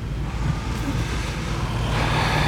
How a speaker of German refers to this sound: Jetzt ging ein Windstoß durchs Auto. Ob man das gleich in der Aufnahme hören tut.